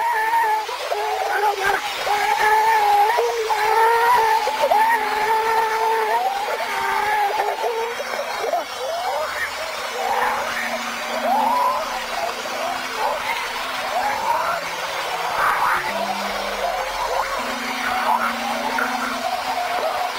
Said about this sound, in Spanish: ya tengo aquí la de esa de las voces del infierno. Si quieren escuchamos esa.